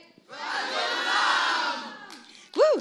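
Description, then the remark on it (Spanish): A live concert audience at Sala Julián Carrillo shouts the venue's name together in one loud, sustained roar lasting under two seconds, followed by a brief pause and a single voice calling out loudly near the end. “Ustedes lo dirán, yo lo diré, que se escuche fuerte y claro.”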